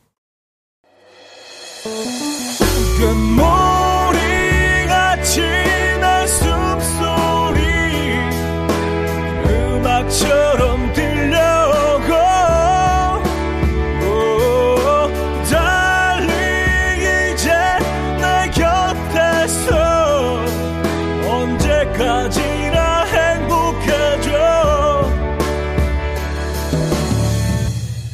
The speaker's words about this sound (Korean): 어, 자, 벌써 1부 끝곡을 들어야 될 시간이네요. 이거 듣고 와서 좀 더 얘기 나누죠.